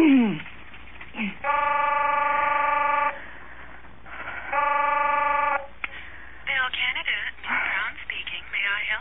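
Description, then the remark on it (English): A telephone's call-waiting tone sounds twice, a steady harmonic beep pattern lasting about a second and a half each time, with a voice talking before and after over a thin phone-line hiss. “Oh, geez, there's another call on the line.”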